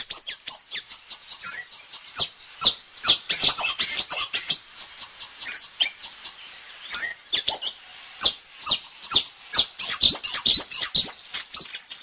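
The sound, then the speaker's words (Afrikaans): A malachite sunbird, a nectar-feeding sunbird, calls with rapid, high-pitched metallic chirps and twitters, delivered in busy bursts that continue throughout, clear with no talking. “Dis die roep daar van die Jan Groentjie, een van ons suikerbekkies.”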